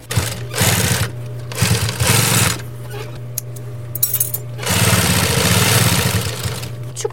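An industrial sewing machine runs in steady whirring bursts, stitching through leather along mostly curved seams. After three short runs it pauses for a few light clicks, then hums again in one longer stretch.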